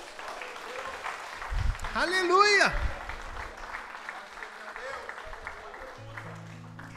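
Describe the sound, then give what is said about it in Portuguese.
An audience at worship applauds the Lord Jesus throughout, a dense, steady clatter of many hands, while a voice rises in a sung or shouted exclamation over the clapping. “Dá um aplauso ao Senhor Jesus.”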